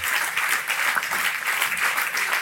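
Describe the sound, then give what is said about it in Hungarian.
An audience applauding in a steady, dense wash of many hands clapping, holding an even moderate loudness throughout with no voices standing out. “Bátrabban tapsoljátok, mert egy kicsit bátortalanul.”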